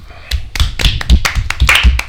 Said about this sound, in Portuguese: Antes de você continuar isso, merece uma salva de palmas.